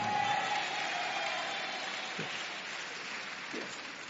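A crowd applauds, with the ladies in the audience clapping their hands, in a dense, steady wash of clapping that lasts the whole stretch at an even, moderate loudness, with faint voices briefly surfacing underneath.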